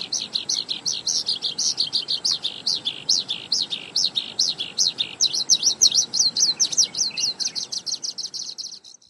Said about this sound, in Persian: این الگویی که توی گوشه چکاوک هست که الگوش اینجوریه دام دام دا دا دام دام دا دام دادام دام و اینو پرنده چکاوک و آوازشو بشنوین روی همچین پترنی میخونه